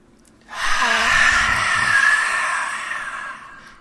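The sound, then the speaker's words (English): A single long, forceful breathy exhale, loud, with a rough, hissing quality that sustains for about three seconds before tapering off; a yogic lion's breath exhale after a big inhale during breathwork. “Okay, so just get comfy once again, and we're going to take a big inhale and a nice lion's breath out.”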